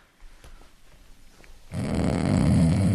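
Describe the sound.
After a second or so of quiet shuffling, a person loudly imitates their own snore, a single long, raspy, rattling breath that lasts to the end.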